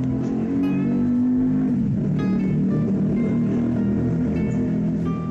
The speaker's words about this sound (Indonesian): ya maaf ini saya lagi di luar jadi ada suara beberapa kali mungkin ada suara kendaraan